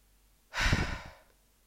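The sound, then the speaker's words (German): A single deep, audible breath, a breathy rush that swells quickly and trails off like a long sigh, with no talking around it. “Und atmet einfach mal tief durch”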